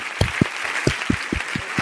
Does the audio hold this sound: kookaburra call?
no